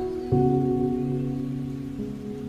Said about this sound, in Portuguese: E agora deixe a chuva cair e desprender.